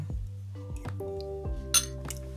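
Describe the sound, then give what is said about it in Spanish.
A spoon clinks against a bowl as someone eats soup in a kitchen, several times at an unhurried pace, each clear tap leaving a short ringing tone, with one brighter scrape near the end. No one speaks. “Bueno, que estoy en la cocina, estoy tomando sopa, weón.”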